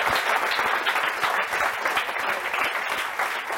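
A crowd applauds steadily, a dense wash of many hands clapping at an even, sustained level for a few seconds with no voices standing out.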